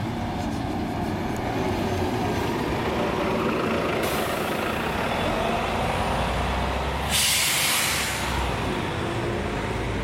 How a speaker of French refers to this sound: J'entends le bruit d'un moteur. Et le passage d'un bus.